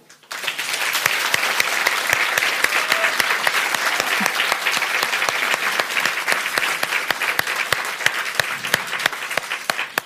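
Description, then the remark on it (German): An audience at the Arboretum in Drez claps steadily for about ten seconds, a dense, even wash of many hands with occasional sharper individual claps standing out, sustained at a lively level without pause. “Wir sind immer noch im Arboretum in Drez und wir kriegen bestimmt auch für diese Folge einen tollen Applaus vom Publikum.”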